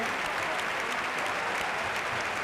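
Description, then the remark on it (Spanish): Loud, sustained applause from a large outdoor crowd in a bullring, a thunderous ovation for bullfighter Morante de la Puebla as he leaves, a dense roar of clapping that fills the whole stretch evenly without pauses or distinct voices. “Atronadora ovación.”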